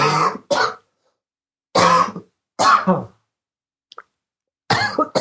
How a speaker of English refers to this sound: oh, it's my turn to cough.